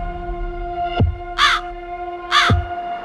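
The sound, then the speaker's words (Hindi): A crow flying alongside a moving bus caws twice, harsh, with a pause between calls. A steady low hum runs underneath, and a deep thump sits just before each caw. “कुछ ही देर बाद चलती बस के साथ साथ वही कौआ उड़ रहा था और रह रहकर कांव कांव कांव कांव किए जा रहा था”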